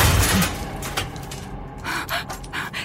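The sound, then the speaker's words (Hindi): A ceiling fan crashes down in a burst of harsh, noisy clatter, followed by scattered rattling impacts over a few seconds, with breathy gasps mixed in. “ये ceiling fan कैसे गिर गया लास्ट वीक तो सारी चीजें इलेक्ट्रिशियन ने चेक की थी”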